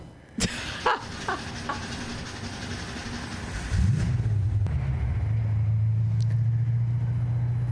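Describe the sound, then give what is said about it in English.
A car engine cranks with a few clicks and rough noise, then catches nearly four seconds in, rising into a steady, loud low rumble that keeps running. “Waiting for that car to start.”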